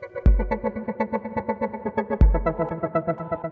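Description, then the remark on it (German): A rapid arpeggiated synth or guitar line ripples through a song, notes pulsing in a steady rhythm over deep bass hits, heavily processed with effects and no voices. “Könnte auch ein Synthi sein oder eine Gitarre, aber es ist ein Arpeggi.”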